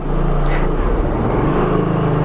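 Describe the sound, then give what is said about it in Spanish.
An airplane passes overhead above a studio, a steady, loud low engine roar with a broad rumbling drone that holds throughout without fading. No one speaks. “Es un avión hay muchos aviones aquí en el estudio, estamos felices.”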